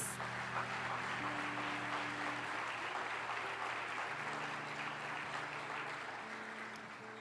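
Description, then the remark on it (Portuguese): A church audience applauds the name of the Lord, a steady, dense wash of clapping that holds for several seconds, with low sustained organ or keyboard tones humming underneath before slowly easing off. “Aplaudo o nome do Senhor mais uma vez.”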